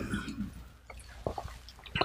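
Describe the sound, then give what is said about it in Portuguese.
Someone takes a quiet sip of water: soft wet mouth noises, a faint swallow, then a few short clicky gulps near the end, with no talking. “Vamos tomar uma água e diminuir a velocidade não é?”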